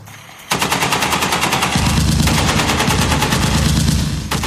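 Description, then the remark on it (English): A loud, sustained burst of rapid high-caliber gunfire starts abruptly and hammers on continuously, dense, with no voices, the bullets bouncing off the face and body of a giant. “A loud volley of high caliber speckles and sugar bullets bounces off the face and body of Copzilla”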